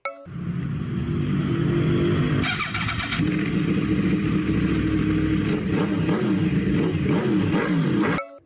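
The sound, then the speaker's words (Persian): A small Pride car engine in Iran runs loud for several seconds, its pitch climbing and dropping as it revs up and eases off repeatedly, with no voices. “این که شنیدید صدای خودرو پراید بود در ایران”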